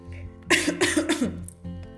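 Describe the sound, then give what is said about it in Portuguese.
A person coughs several times in a quick, harsh fit, with no talking; a faint low hum continues before and after. “Mas desculpa pela tosse, não é corona não.”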